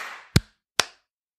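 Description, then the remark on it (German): A sharp hand clap, given on cue after a three-two-one countdown during a recording, rings out after a soft hiss, followed about half a second later by a second crisp, similar snap. Both are brief and bright, with no voices. “Äh, 3, 2, 1, Rekord. Äh, läuft. 3, 2, 1, Klatsch.”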